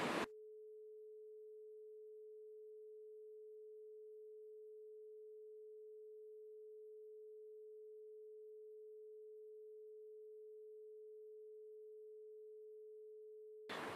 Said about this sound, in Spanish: Ahorita debes de estar escuchando este sonido en tu lado derecho. Voy a dejar un poco el tono para que veas y escuches la frecuencia.